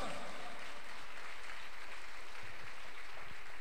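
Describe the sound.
An audience claps together in a dense, steady wash of applause lasting several seconds, with a murmur of voices mixed underneath.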